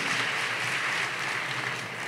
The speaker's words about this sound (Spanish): Ayer estamos comprando unos regalos para dos pastores que están en Estados Unidos de la iglesia Amigos en Kingston, New York, para quien pido un fortísimo aplauso el día de hoy, el pastor, padre, pastor Josías.